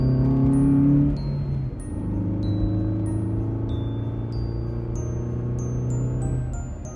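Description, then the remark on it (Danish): A car engine drones steadily as the car drives at full speed down to town, a loud, continuous low rumble with a slight shift after the first second, and faint high electronic pips sounding above it. “De er alle sammen hoppet ind i bilen og kører nu i fuld fart ned til byen for at se, om de kan nå at komme ned til blomsterhandleren, inden de lukker.”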